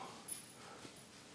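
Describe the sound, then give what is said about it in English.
A small dog walking around gives a couple of soft, brief snorts and a faint whimper, quiet, over a low steady background hiss with no talking. “keeps walking around here looking at me. Little dog.”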